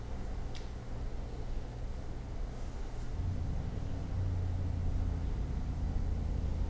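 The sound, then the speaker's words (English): A steady low engine rumble drones throughout, growing slightly louder and deeper after a few seconds, with no voices present. “Or somebody's engine.”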